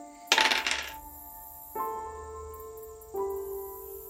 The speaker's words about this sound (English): And if someone would roll me percentile dice, please. It's not going to be me. I want to win this thing. Somebody else roll.